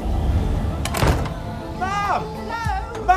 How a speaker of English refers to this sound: The doors. The great doors that lead out of time. They're opening.